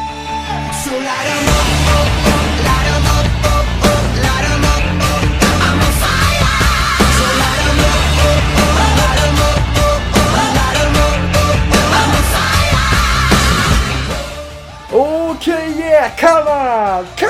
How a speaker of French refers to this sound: Je suis en train de crier dans la maison. J'espère que les voisins sont pas en train de dormir. S'ils sont en train de dormir, ben ils dorment plus en ce moment.